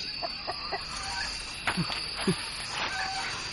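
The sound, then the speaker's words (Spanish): Several chickens cluck in short, scattered bursts over a steady background hiss, with a couple of louder clucks standing out near the middle. “¡Gallinas de mierda! ¡A la mierda de aquí, joder!”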